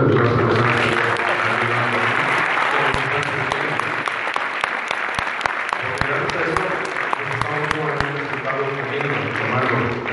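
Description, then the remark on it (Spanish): An audience breaks into sustained applause for the waiters, a dense wash of clapping with sharp individual claps popping out, steady and loud for the whole stretch while a voice talks faintly underneath. “Una que me gusta mucho, y lo he compartido también con muchas personas, es cuando alguien te ayuda en algo, como los meseros, que yo creo que también merecen un aplauso hoy,”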